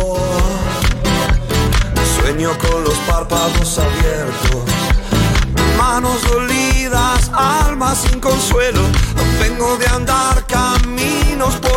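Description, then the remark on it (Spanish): A loud, steady electroacoustic song built on keys, synth layers and programming with a driving beat, a male voice singing a melodic vocal line in Spanish over it throughout. “Otros sonidos, teclas o sintes.”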